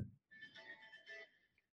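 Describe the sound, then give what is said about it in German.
A mobile phone rings with a faint, electronic melodic ringtone, steady tones lasting just over a second after a brief low thump, with no one talking. “So, jetzt klingelt mein Handy, das müssen wir erstmal auf lautlos machen.”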